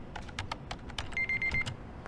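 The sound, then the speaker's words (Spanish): Rapid, uneven key clicks from a computer keyboard with a braille display, moderately loud, with a short run of faint electronic beeps partway through and no voices, as someone does programming. “escribiendo en el teclado con línea braille.”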